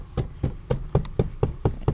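A steady run of about eight muffled thumps, evenly spaced and quick, like someone beating dust out of a padded seat close by, with no talking.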